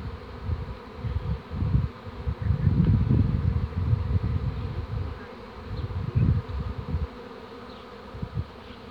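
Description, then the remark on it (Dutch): A dense swarm of bees buzzes continuously around the speaker, a thick droning hum that swells and fades as insects pass near, with no voices. “Ik sta gewoon echt in een wolk van bijen.”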